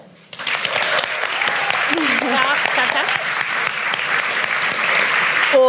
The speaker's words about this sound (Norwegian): Applaus for det også.